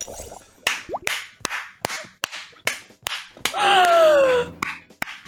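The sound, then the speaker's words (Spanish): Someone mimics a duel of two lightsabers, to be replaced with effects in post-production, with a rapid series of sharp slap-like clashes, roughly two per second, and a sustained humming, wavering vocal swoosh in the middle, loud. “Esto luego en postproducción serán dos espadas láser. Hacer el ruido de...”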